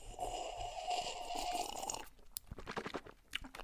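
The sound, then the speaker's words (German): Gulping of rum, a couple of seconds of wet, gurgling swallowing to bring air to the rum, followed by a series of sharp, clicky mouth and throat sounds, fairly loud with no talking. “Prost hier, warte, jetzt trinken wir auch richtig. Ja, jetzt aber mit Geräusch.”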